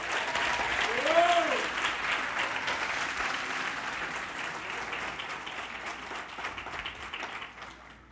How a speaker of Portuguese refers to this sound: Só quem quer maturidade, dá um aplausinho ao Senhor aí, por favor.